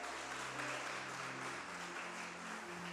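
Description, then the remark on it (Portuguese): A church audience applauds Jesus loudly and continuously, a dense wash of many hands clapping together with a steady, sustained roar and faint low tones underneath. “Vamos aplaudir Jesus bem alto então, gente?”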